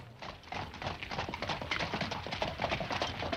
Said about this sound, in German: Das nächste Fuhrwerk kommt angerollt. Und eines der Pferde lässt auch tatsächlich etwas fallen.